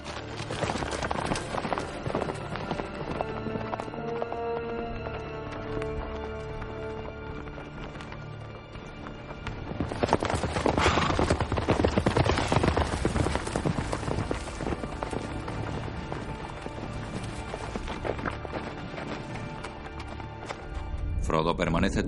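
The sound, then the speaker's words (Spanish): Horses' hooves clip-clop in a steady, trotting rhythm, growing louder partway through as Aragorn, Gandalf, Legolas, Gimli and two escort riders approach the Black Gate, set against a dense, sustained tonal background that fills the whole stretch. “Aragorn, Gandalf, Legolas, Gimli y dos jinetes de escolta se acercan a la puerta negra.”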